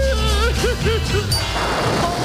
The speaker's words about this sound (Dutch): Met bliksem en donder.